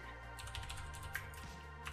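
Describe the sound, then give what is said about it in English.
Rapid, uneven keystrokes clatter on a computer keyboard, a steady flurry of clicks over a low background hum, with no voices. “You can hear my lovely keyboard again.”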